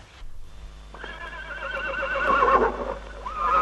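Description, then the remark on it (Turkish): A horse standing right beside the listener whinnies, a long wavering neigh that rises and trembles for a few seconds, then breaks into a second louder burst at the end, its mouth nudging the listener's back. No one speaks. “Tam kapıyı vuracaktı ki yanı başında duran bir atın kişnemesiyle kendine geldi.”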